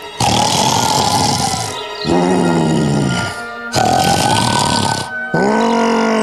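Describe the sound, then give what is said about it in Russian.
Loud snoring from a voice imitating a grey wolf lying asleep in the sun: four heavy breaths alternating rasping, throaty inhales with groaning, growly exhales in a steady rhythm, with no talking. “Серый волк храпит во всю пасть.”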